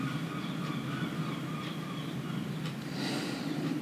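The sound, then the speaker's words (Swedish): A low, steady rumble of thunder rolls on without a break, with a faint hiss above it and no voices. “Vi lyssnar på åskan och tar in känner kraften i naturen.”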